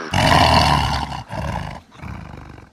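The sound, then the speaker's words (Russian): The tiger Shere Khan roars loudly: one long, rumbling roar followed by two shorter, weaker roars, each dying away in turn, with no talking. “Врагами его были тигр Шархан и шакал Табаки.”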